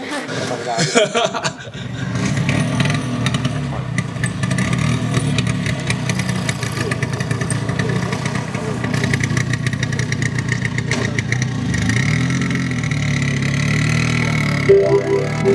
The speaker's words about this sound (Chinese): 这样听得到，这头前这个声音是我的 Vespa 的声，哦，不过伊虽然是离合电哦